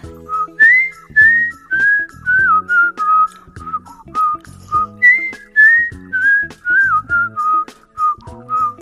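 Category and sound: human body sound, person whistling a tune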